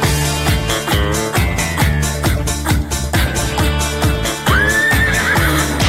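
A horse whinny sounds out over a loud, upbeat dance track with a steady pounding beat, its pitch sliding up and then trailing off near the end.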